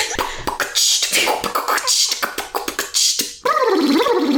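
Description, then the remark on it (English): Loud beatboxing with quick mouth-made kicks, snares and hissing hi-hats, ending in a warbling, high-pitched squeal as a voice imitates a dolphin's chatter. “I'm so I'm amazed the dolphin noise managed to make it into the beatboxing.”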